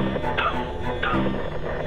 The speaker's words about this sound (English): Hoofbeats. It's him. It's the horseman.